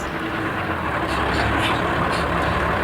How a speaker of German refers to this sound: Kein Mensch war zu sehen, als der blaue Lieferwagen in die von einer Hecke überwucherte Einfahrt fuhr.